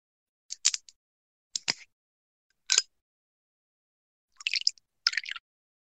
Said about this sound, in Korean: 열심히 뚜껑을 뜯고 있는데